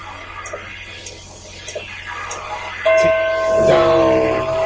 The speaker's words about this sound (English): So they got a bell on the clock that has no bell on it, and it only struck what is it, one o'clock? Because it only rung once.